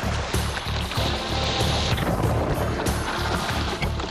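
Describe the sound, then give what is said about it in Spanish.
Steady, rhythmic splashing of a surfboard being paddled hard through ocean water during a surfing lesson, fairly loud, with repeated strokes against a constant wash of water and wind noise. “Ahí va, ¿eh? Remando fuerte.”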